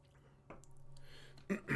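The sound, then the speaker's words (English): Faint background hum, then two short slurping sips a moment apart as someone drinks iced coffee from a mason jar, with no talking. “Have a little hipster sip of this iced coffee in a mason jar too.”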